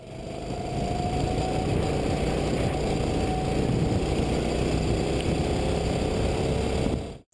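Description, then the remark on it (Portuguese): A small go-kart engine drones steadily for several seconds, a loud, buzzing motor note holding a constant pitch before cutting off abruptly at the end, with no voices. “Pois é, você imaginava que um carro com um som desse”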